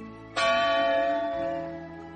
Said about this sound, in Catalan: Torna a sentir-se la una en un rellotge i apareix el segon esperit